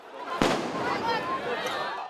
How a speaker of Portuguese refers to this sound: Correria, bombas de gás lacrimogênio e tiros de bala de borracha.